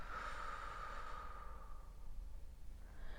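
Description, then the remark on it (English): A soft, slow exhale drawn out over a couple of seconds, followed by the start of another breath, quiet with no talking. “Breathing with me.”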